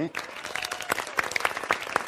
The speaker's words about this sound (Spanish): Un aplauso, por favor.